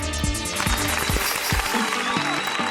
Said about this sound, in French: on a Billy ah Boy qui vient de gagner le, le CV1. Alors on va t'applaudir Billy Boy.